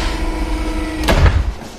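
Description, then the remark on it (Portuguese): A large metal door opens with a sudden scraping clank and a deep, rumbling thud, over a steady low background hum. “Tem uma, uma porta grande de metal. A, assim que todos saem, o carro dá meia volta e vai embora. A porta então se abre.”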